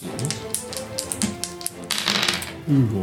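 Dice are rolled for a fight in a board game, rattling and clattering across a table in a quick run of sharp clicking taps, building to a denser tumble before settling, with a brief voice murmuring at the very end.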